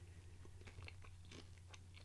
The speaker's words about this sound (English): I like that I can hear the crunch because the it only takes four minutes and you do get just a little bit of crunch with these.